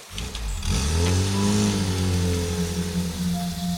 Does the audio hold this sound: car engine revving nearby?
yes